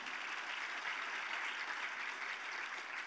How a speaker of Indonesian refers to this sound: Katakan amin. Berikan tepuk tangan bagi Yesus Tuhan kita.